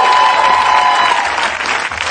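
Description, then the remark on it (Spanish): A crowd applauds steadily, a dense wash of many hands clapping at once, loud and sustained throughout with no voices standing out. “Un aplauso para Raúl”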